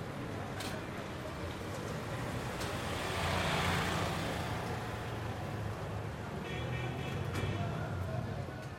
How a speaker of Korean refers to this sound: 바짝 긴장한 채 고돌리아 방향을 향해 걷기 시작했다. 자동차와 오토릭샤, 오토바이 소리에 사람들의 고함과 먼지까지 뒤범벅된 길을 걷는 건 쉽지 않았다.